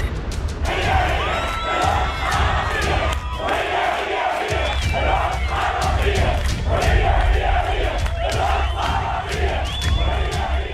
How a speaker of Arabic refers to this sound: وفور انتهاء معركة سيف القدس مباشرة تعالت هتافات الحشود الفلسطينيه التي تحاصرها شرطه الاحتلال من كل جانب داخل المسجد الاقصى المبارك بكل جراه وتحد